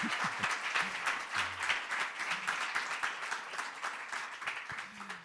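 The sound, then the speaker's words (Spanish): Steady applause from a crowd for a guest artist, a dense rush of many hands clapping at an even, sustained loudness for several seconds, with faint voices murmuring underneath. “vale, por eso este aplauso es para ti”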